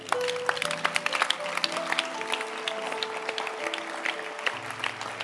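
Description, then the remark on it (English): Steady applause from a crowd clapping for the biblical Joseph, a dense patter of many hands clapping at an even level throughout, with no pauses or individual voices standing out. “And we, we can clap for him now.”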